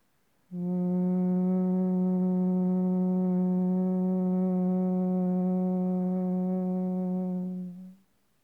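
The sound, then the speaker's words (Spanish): A single steady, low nasal hum held for about seven seconds, a slow exhale through the nose with the mouth closed and teeth slightly apart, buzzing like a bee, loud with an even tone before fading out at the end of the breath. “Comenzá a expirar de forma lenta por la nariz, emitiendo un zumbido similar al de las abejas.”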